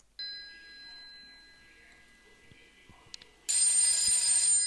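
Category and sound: household object, telephone ringing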